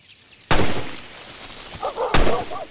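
Two loud gunshots ring out about a second and a half apart, each with a sharp crack and short echoing tail, while faint animal cries rise briefly between them.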